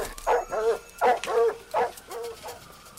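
Cadaver dogs in a backyard barking in a quick run of about six high, yelping barks with a whiny edge, moderately loud, with no talking, as they indicate human remains there.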